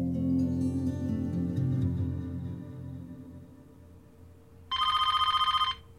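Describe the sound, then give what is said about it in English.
A telephone bell rings once in a loud, rapid trill lasting about a second, cutting in after a stretch of low, murmuring background sound. “The telephone's ring interrupted the idle.”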